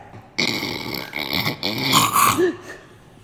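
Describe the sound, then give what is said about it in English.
Someone imitates a loud, choking snore with their voice: a raspy, gurgling snort that strains and sputters for a couple of seconds, with no other talking. “It's like literally he's choking”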